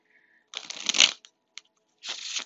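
Crisp riffling of a Tarot Mucha deck of tarot cards, shuffled before a reading in two quick bursts separated by a brief pause and a single soft tap, with no voices.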